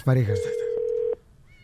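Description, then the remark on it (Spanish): A brief electronic telephone tone as a phone call is being placed: a single steady, fairly loud beep held for under a second, with a couple of faint clicks, then it cuts off into quiet line noise. “estamos llamándole ahorita, paisanos, a hermana de escucha”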